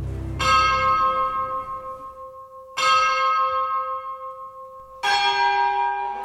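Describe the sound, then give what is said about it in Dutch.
An orchestral bell in a symphonic piece, part of a new orchestral line-up, tolls three times at a slow, steady pace, each clear metallic strike ringing out and fading before the next, with a faint low murmur beneath the first stroke. “Voor het eerst hoor je bijvoorbeeld een klok”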